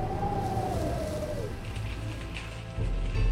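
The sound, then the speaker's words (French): A thin whistling tone of wind slides slowly downward in pitch and fades after about a second and a half, leaving a steady low rushing rumble that swells again near the end. “Nouveau vent sifflant.”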